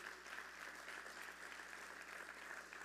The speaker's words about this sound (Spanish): me dice mi, mi, amigo el pastor Chris Richards de Vino Nuevo, a quien le enviamos un aplauso. Dele un aplauso al pastor Chris Richards.